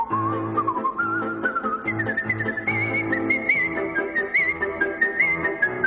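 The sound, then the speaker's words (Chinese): A clear, bright whistled melody glides and trills through a musical phrase, gradually climbing in pitch, carried over a steady instrumental accompaniment with a low pulsing bass line; no one speaks. “他最高纪录一分钟可以吹三百个音符，成为世界上第一位把口哨吹进国家音乐厅表演的人。”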